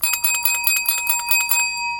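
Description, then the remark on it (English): A waiter, having opened the lid of a big pot of food, clinks a spoon rapidly against the large metal pot, about a dozen bright strikes in quick succession, fairly loud, with a ringing metallic tone lingering briefly after the last hit. “The waiter opened the lid and clinked the spoon against the big pot.”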